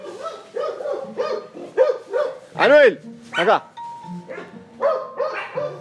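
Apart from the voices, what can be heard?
dog barking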